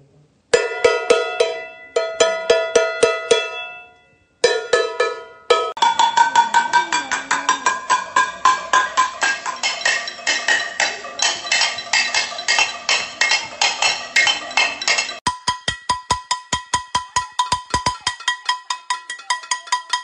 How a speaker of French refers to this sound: Pour marquer leur désapprobation, plusieurs Gabonaises et Gabonais ont décidé de manifester leur mécontentement de manière non violente en frappant des casseroles tous les soirs à 20h.